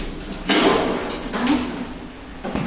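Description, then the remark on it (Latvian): A stair lift platform, mounted by a staircase railing and started with a remote control, folds down so a wheelchair user can ride onto it, with a few mechanical scraping, sliding clunks, three distinct bursts spread over a few seconds, moderately loud, with no talking. “Pacēlāja grīda nolaižas, un Elvīra var uzbraukt uz tās.”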